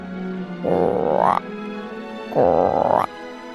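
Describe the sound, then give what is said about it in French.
A voice imitates a tiny green frog croaking twice in a told story, each a drawn-out, rising, buzzy croak lasting under a second, separated by a short pause, fairly loud with no words spoken. “alors que la reine était dans son bain, elle vit, sous une feuille de nénuphar, une toute petite grenouille toute verte. La grenouille la regardait fixement et elle lui dit”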